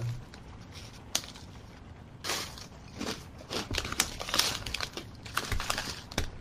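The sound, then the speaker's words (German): Irregular crinkling of a chips bag, a steady run of crackly rustles and sharper crunches over several seconds, with no one speaking. “Boah, was knistert denn da?”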